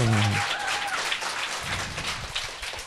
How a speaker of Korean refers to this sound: 네, 여러분 박수 주세요. 아, 네. 아, 박수 네. 한번 주세요.